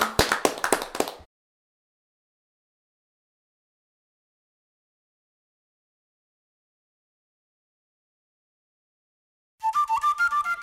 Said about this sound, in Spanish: Pues Perfecto. Un aplauso para todos. Un aplauso para todos.